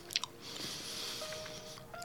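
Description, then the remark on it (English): Wet chewing of Big League Chew bubble gum with soft smacking and squishing, a few sharper clicks near the start and a faint steady hiss underneath, with no talking. “It means we have to keep chewing, which is the stinky part of it all.”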